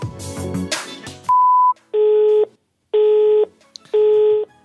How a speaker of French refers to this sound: personne que vous essayez de joindre n'est pas disponible, vous pourrez envoyer un message après le bip sonore.